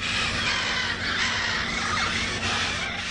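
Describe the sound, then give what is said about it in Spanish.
Birds call steadily in a dense, bright chorus at the National Aviary of Colombia in Cartagena, with harsh caw-like cries over a constant wash of chirps and hum. The sound is continuous and fairly loud, and no one speaks. “El pavo real ya tiene a quien lucirle su encantador plumaje y el canto de las aves volvió a ser escuchado por los visitantes.”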